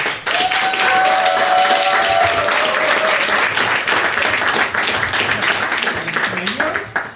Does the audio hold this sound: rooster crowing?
no